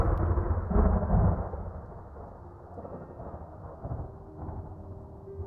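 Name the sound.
thunder rumbling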